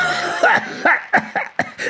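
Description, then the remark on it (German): A fit of harsh coughing: five or six quick, raspy bursts in a row with short gasps between them and no talking. “Unter Husten meldet sich der Badeschlappen wieder zu Wort.”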